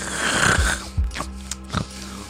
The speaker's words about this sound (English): you can just hear the snoring coming through the door